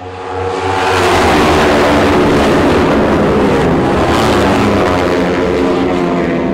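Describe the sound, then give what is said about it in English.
Racing car engines roar and rev loudly at the start of a race as drivers watch the start lights, a dense, sustained mechanical howl that swells within the first second and holds steady, with rising and falling harmonic whines. No talk. “You'll hear the revs go up.”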